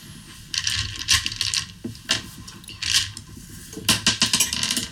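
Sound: dice being rolled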